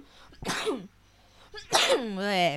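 Two loud, explosive coughs, each a harsh burst trailing into a voiced, falling groan; the second is stronger and drawn out longer, with a short quiet gap between them and no talking.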